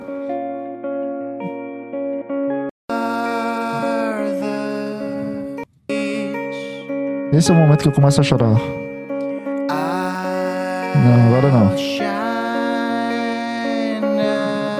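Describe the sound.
A recorded song with rich, sustained harmonic tones plays steadily, cutting out briefly twice as it is skipped forward to a specific moment, while a person talks over the music in a couple of short bursts.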